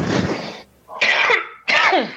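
Three harsh, noisy coughs in quick succession, loud, with short gaps between bursts and no talking.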